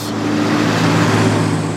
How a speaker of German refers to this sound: Doch selbst auf diesen Landstraßen sind relativ viele Lkw unterwegs. Gerade überholt sie einer.